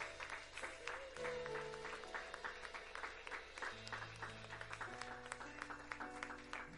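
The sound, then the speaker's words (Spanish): A church audience claps steadily for the King of Kings in a dense, sustained burst of applause, with held keyboard and bass notes playing underneath throughout. “Fuerte aplauso al Rey de Reyes.”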